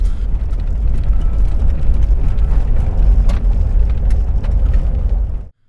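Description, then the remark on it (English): A voice imitates a car rattling over a rough road: a loud, steady, gritty rumble full of crackling clatter, held for about five seconds before cutting off abruptly. “I mean, seriously, when you're when you're driving this, it feels like your car might just like fall apart, or like you're on a wooden roller coaster because it's like.”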